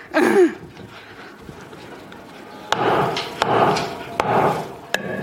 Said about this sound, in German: Hammer, du hast verschaut, schon am ersten Tag. Ah, auf den Nagel, nicht den Finger.